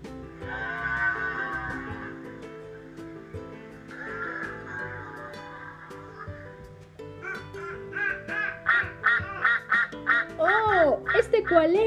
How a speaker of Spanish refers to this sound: ¡Sí, un pato! ¡Muy bien!